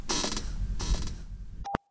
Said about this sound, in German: Claudias Stuhl quietscht gerade für alle